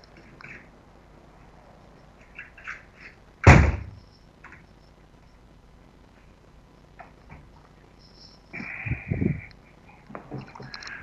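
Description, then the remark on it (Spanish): A window is handled and closed: one sharp, loud knock, then a few seconds later a rumbling slide and bump as it shuts, over a low, steady background hum of ambient street noise. “Eh, entonces, digo, a ver, está, está como, con mucho ruido de ambiente esto, ¿no? Voy, a, voy a cerrar un, a la ventana aquí.”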